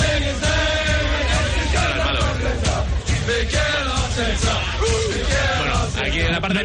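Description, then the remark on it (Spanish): A loud mass of Arsenal football fans chanting together for their manager Mikel Arteta in a sustained, melodic sing-along, many voices blending into a dense wall of sound with rhythmic rises and swells throughout. “Pero esto es eh, cómo le cantan los aficionados del Arsenal a Mikel Arteta.”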